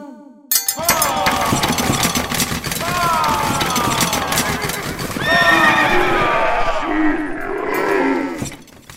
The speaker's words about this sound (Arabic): لقد أخاف صوت الأنعام وأخافت بدورها خيول الجنود إنها تركض هائجة مبتعدة عنهم وتقلبهم من فوق ظهورها